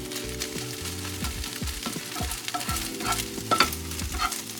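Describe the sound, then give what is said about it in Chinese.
Continuous stir-frying of egg in a pan, breaking it up until slightly golden: a steady sizzle with repeated scraping and clinking of a utensil against the pan in an irregular rhythm, fairly loud, with no talking. “可以稍微一直翻炒，然后稍微把它压碎。”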